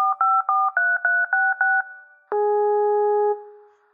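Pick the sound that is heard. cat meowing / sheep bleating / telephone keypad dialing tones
telephone keypad dialing tones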